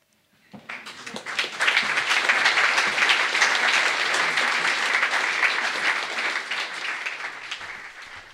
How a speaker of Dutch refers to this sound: Dat applaus klonk op 28 december 2017 in het Deventers Theater Bouwkunde waar een volle zaalgenoot van dit verhaal en nog zes anderen.